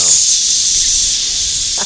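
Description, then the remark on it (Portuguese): A voice imitates the valve of a pressure cooker with a steady, loud hissing sound that runs unbroken for about two seconds, with no other talking. “que é barulho da, da válvula”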